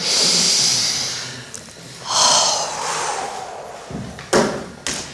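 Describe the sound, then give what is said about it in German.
With eyes closed, a person draws a long, deep breath in, then a slower airy exhale, followed by a couple of soft thumps and a short sniff-like breath at the end. “Schließt mal kurz eure Augen und atmet mal ganz tief durch.”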